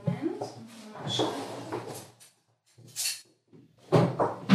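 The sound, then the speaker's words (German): A drawer slides open and metal instruments clatter like cutlery as someone rummages through it in a gynecological treatment room, fetching specula, in a few rattling bursts separated by a short pause. “Klingt nach so einem Besteckschrank. Besteckschublade.”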